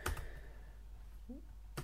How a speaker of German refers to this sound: ich muss es hier ins Dock einstecken, weil ich muss ja einen PIN eingeben. Das ist bei Windows 8 geht das leider nicht ohne.